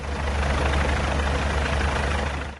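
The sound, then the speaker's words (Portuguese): Military Police and fire department helicopters flying low over scrubland in the late afternoon, a loud, steady rotor roar with a deep low-end throb filling the whole moment without pause, no voices heard. “Helicópteros da Polícia Militar e dos bombeiros sobrevoavam baixo.”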